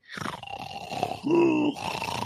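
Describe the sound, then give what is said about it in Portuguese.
A person imitates a man's loud snoring with a drawn-out, guttural groaning rasp that swells into a louder, strained stretch before easing off with a hiss at the end, with no talking. “E quando ele roncava, essa porta de vidro vibrava, cara.”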